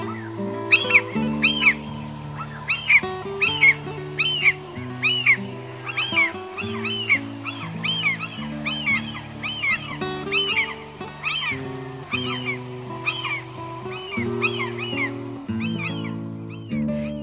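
Common gull calls repeat throughout, a steady series of high, mewing, squealing cries with short gaps, heard over a soft background of low, sustained musical tones that shift in steps.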